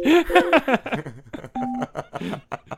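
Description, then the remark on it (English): A short electronic touch-tone beep sounds once in the middle, clear and steady, surrounded by muffled voices that sound like they're coming over a phone line, as a barbershop is called. “Call the next.”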